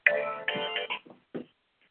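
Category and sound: signal or alarm, phone ringtone ringing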